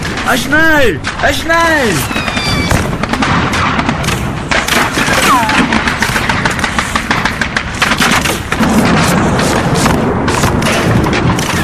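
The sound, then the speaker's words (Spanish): Intense mortar fire explodes in a relentless, deafening barrage on a clearing, sharp booms and cracks overlapping without pause, with shouting voices rising over the din at the start. “Los alemanes se pusieron a cubierto y en ese momento comenzó a llover en el claro donde estaban hacia apenas un segundo un intenso fuego de morteros.”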